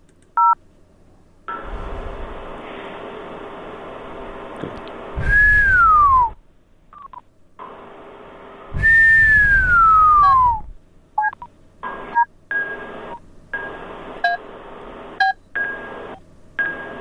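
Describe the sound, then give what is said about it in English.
Telephone keypad tones after pressing 0 to alert an elevator passenger of rescue ring out with no talking: long steady tone blocks, two loud descending whistle-like sweeps, then a quick run of short, evenly pitched beeps. “Press 0 to alert passenger of rescue.”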